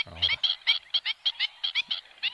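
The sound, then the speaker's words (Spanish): A black-winged stilt, a bird living near water, gives a rapid series of sharp, yelping calls, about a dozen evenly spaced notes in two seconds, fairly loud, with no talking over them. “sí, no, pero en este caso es una ave del, agua o muy cercana al agua, pero que no, no es una nátida, no es un patito, es una cigüeñuela, en este caso ah, la cigüeñuela, común”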